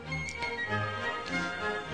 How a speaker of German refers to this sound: Aufziehen Kuckucksuhr, aufziehen Wanduhr.